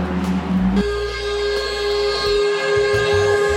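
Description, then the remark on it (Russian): A fire engine's siren blares as it passes on its way to a call, a steady, loud, multi-toned wail over a low engine rumble that holds for several seconds. No one speaks. “Э, какая-то пожарная едет на вызов”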